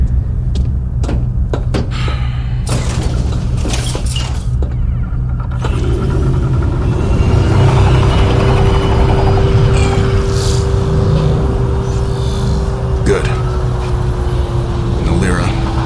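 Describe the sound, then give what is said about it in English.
A small ship's engine starts up: a few sharp clicks and clunks, then a loud rumble kicks in and settles into a steady droning hum with a sustained whine. “If you can, get in and start the ship.”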